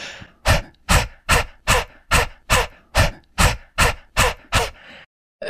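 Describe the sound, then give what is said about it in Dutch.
A person forcefully exhales about eleven times in a steady, fast rhythm during a breathing exercise, each breath a sharp, breathy puff, exhaling so hard that the diaphragm draws the next breath in automatically, before stopping abruptly. “zij wil dan niet dat je eh, eh, inademt en dat je uitademt. En dan zo hard uitademt dat je automatisch je middenrif weer, zeg maar, die inademing doet.”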